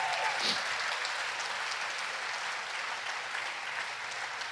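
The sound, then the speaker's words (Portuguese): An audience applauds for Jesus, a steady, dense wash of many hands clapping at an even level throughout, with no voices rising above it. “Se você quer dá uma linda salva de palmas, Jesus.”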